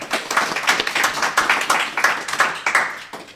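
Audience applause: many hands clapping in a dense, steady patter of sharp claps, fairly loud throughout with no voices over it.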